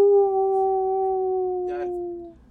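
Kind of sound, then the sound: vocal imitation, person imitating a howl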